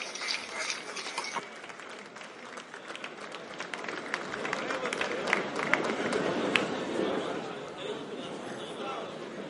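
An audience applauds steadily for several seconds, dense overlapping claps mixed with crowd chatter, swelling slightly in the middle and holding at a moderate level throughout.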